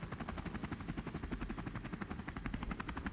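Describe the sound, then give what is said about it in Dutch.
A helicopter flies by, flying a person from one city to another, its rotor blades beating in a rapid, steady thump over a loud continuous engine drone, with no voices. “Maar ik weet wel dat ik in een helikopter zat.”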